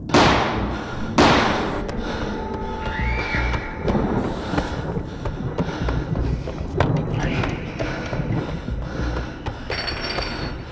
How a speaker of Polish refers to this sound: To dźwięk czołówki pewnego popularnego programu z lat 90. Starsi widzowie na pewno kojarzą o co chodzi telewizyjne biuro śledcze, czyli takie 997, tyle że na Polsacie.